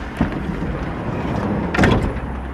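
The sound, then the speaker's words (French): A van door opens: a brief metallic click, then a louder rattling slide and thud over a steady low background rumble. “Donc, ouverture du camion.”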